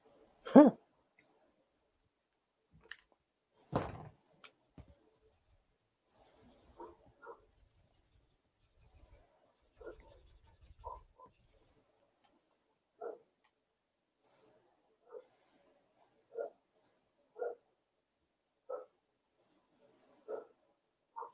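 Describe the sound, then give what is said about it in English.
Faint barks from a neighbor's dog come in a loose series of short yaps, spaced about a second apart, with a few soft clicks and rustles. “No, that that that is a the neighbor's dog.”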